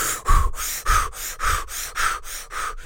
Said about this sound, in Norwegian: Du puster veldig fort inn og ut, inn og ut, og så slapper du av i 15 sekunder, og så gjør du det samme i 15 sekunder.